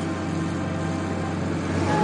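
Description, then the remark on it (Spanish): A huge excavator's diesel engine, with Martínez at the controls, rumbles into life to break up the stripped shell of an aircraft for the scrapyard. It runs with a steady, low droning hum and a constant mechanical rattle, fairly loud throughout, with no voices. “Una inmensa excavadora cobra vida.”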